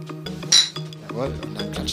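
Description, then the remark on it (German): Glasses clink together in a toast, one bright, ringing chime, heard over steady background voices and a low musical tone. “Wir stoßen nochmal an.”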